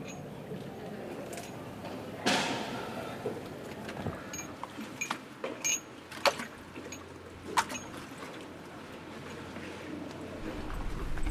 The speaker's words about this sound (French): une gondole qui passe.